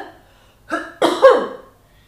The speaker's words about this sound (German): Ja ich habe gerade gehustet und in dem Moment ist irgendwo eine Tür zugefallen.